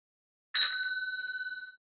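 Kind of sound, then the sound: signal or alarm, bicycle bell ringing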